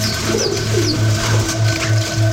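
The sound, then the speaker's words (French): Pigeons coo in a steady, repeating rhythm, about six soft low hoots, with faint higher bird chirps scattered in the background and no talking. “quand t'es sur une place en Italie, euh, en plein milieu de l'été avec tes meilleurs potes, euh, tu bois un petit verre, bon bah t'es, hyper heureux, t'as envie de, crier et de faire s'envoler les pigeons tellement t'es heureux quoi.”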